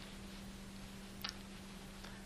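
A steady, low machinery hum drones quietly and unbroken throughout, with a couple of faint ticks near the middle and no voices.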